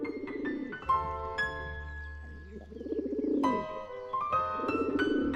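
Low, burbling coos repeat in soft, rolling, even, plaintive phrases over a steady tonal hum, with no voices, sounding like pigeons cooing at daybreak in spring.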